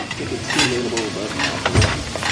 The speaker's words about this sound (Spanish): Un cocinero camina por la cocina de un restaurante con una caja de mariscos. Un joven árabe lava platos.